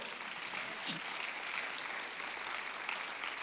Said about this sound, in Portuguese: Aplauda ao Senhor.